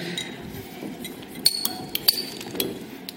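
Several beer glasses clink together in a quick toast, bright ringing chinks over a low murmuring background.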